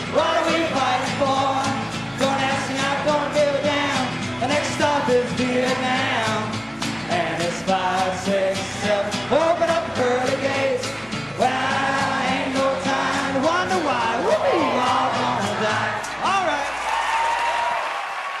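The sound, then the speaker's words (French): A huge outdoor crowd of thousands of festival-goers roars and shouts "fuck" together in protest for about eighteen seconds, many voices rising and falling in loud, overlapping yells with scattered clapping mixed in. “Donc, il demande évidemment aux milliers de festivaliers de crier haut et fort fuck en signe de protestation suprême.”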